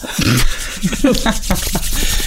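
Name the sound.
hands rubbing together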